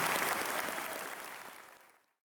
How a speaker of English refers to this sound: Can give him a round of applause for coming? Thank you very much.